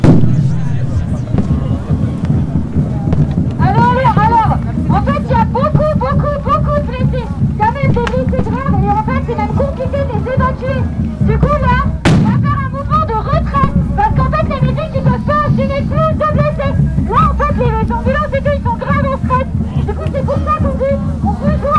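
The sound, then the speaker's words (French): A single sharp police grenade blast cracks out midway through a loud, chaotic protest clash, with many voices shouting and a heavy low rumble filling the air throughout. “La pluie de grenades reprend plus belle.”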